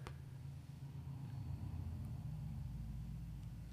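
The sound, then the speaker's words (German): A customer's car arrives, its engine rumbling steadily at low pitch, fairly quiet, holding an even level throughout with no voices. “ich musste jetzt komplett unterbrechen, da kommt gerade ein Kunde. Ah, hm. okay. Du wirst jetzt auch ah, das ja. Auto sehen”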